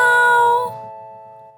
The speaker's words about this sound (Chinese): 喵喵喵喵！